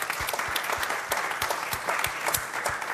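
Sustained audience applause, a dense steady patter of many hands clapping at an even loudness throughout, with no voices standing out.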